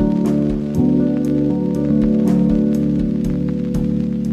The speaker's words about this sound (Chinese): 喂，下雨了， 真不巧，外边有多好啊！